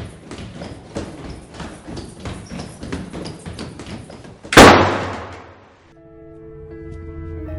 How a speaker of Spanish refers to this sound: Las puertas se cerraron súbitamente.